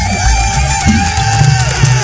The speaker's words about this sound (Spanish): Una, un aplauso. Bienvenida.